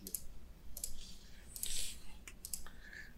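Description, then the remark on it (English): A few sharp mouse clicks, spaced irregularly, over a low background hum with no one speaking. “I have the clickiest mouse.”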